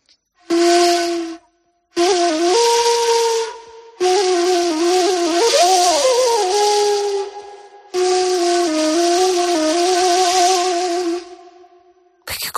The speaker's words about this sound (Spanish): Si te parece ahora, vamos a meternos en ese inmenso mar de arena que es un desierto, con esta flauta que se llama Ney. Ney.